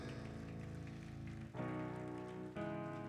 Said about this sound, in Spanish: Dele un aplauso fuerte al Señor en esta tarde.